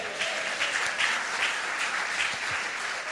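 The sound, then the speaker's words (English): A church audience claps steadily and densely for the praise team and band, a sustained wash of applause without pause, even in loudness throughout, with no talking over it. “Let's give them a hand.”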